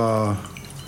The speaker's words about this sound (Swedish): jag ville att du skulle prova detta, för det här är, enligt mig så är det här något av det godare man kan dricka. Ja. Eh, Spännande. Så att jag häller upp. Gör det. Och det är årgång 95.